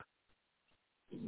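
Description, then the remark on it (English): A dog lets out a short, low grunting noise near the end, following a quiet stretch with a couple of faint soft taps. “Oh, excuse the dog.”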